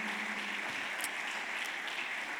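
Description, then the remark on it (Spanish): An audience applauding the Lord together, a dense, steady wash of many hands clapping at once that holds an even loudness for the whole moment, with no voices standing out. “Y si tú crees que viene lo mejor, dale un aplauso al Señor y dile gracias Señor porque viene lo mejor.”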